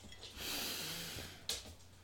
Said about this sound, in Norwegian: Men da, vi, da trekker vi pusten. Ja